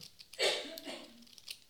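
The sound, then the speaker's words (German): A short, quiet fart: a brief breathy burst followed by a low, buzzing tone that sags slightly in pitch and trails off after about a second, with no talking. “Ja, das war mein Furz.”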